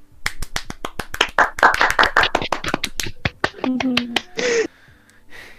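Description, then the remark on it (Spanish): A quick burst of applause welcoming a special guest on a show: loud, sharp claps in a fast, uneven patter for about three seconds, fading out as a voice cheers or whoops briefly at the end. “Aplauso.”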